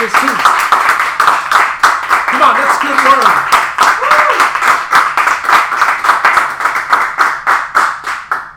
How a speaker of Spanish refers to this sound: Si tú lo quieres, dé un aplauso fuerte al Señor. Recíbalo, vamos. Un aplauso fuerte